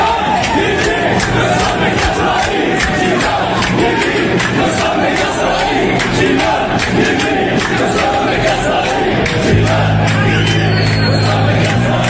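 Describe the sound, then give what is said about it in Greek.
A large crowd chants and shouts in unison in the Athens metro, loud and continuous, with a reverberant echo and a low rumbling hum joining in near the end. “Αυτό που ακούτε είναι από το μετρό τη Αθήνα, έτσι.”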